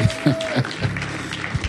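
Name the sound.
audience clapping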